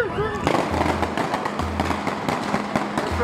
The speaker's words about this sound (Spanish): Nunca entendí por qué tantos balazos. Lo vi varias veces y nunca entendí por qué tantos balazos.